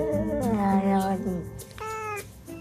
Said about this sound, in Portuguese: O vídeo Aqui há gato. Dois gatos miam e vai aparecendo o diálogo.